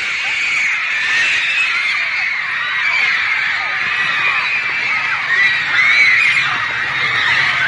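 A huge crowd of fans screams hysterically and continuously as the band appears, around 1960, a dense wall of high-pitched shrieking that stays loud and sustained without a break for the whole stretch.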